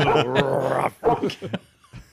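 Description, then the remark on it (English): A person imitates a barking dog: a drawn-out vocal growl followed by a quick run of short, punchy barks, then a faint trailing yip. “But dog, rough, rough, rough.”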